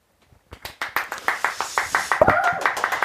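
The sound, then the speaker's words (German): Applause builds from a few scattered claps into a steady run of sharp, rapid hand claps, fairly loud, with a brief voice-like tone briefly rising above the clapping. “Applaus, Applaus, Servus und Servus.”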